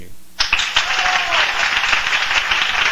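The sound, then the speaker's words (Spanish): A crowd bursts into steady applause for Guatemalan film director Jairo Bustamante after a brief quiet moment, many hands clapping densely and loudly for a few seconds without letting up. “Un aplauso para El aplauso de hoy. Aquí viene.”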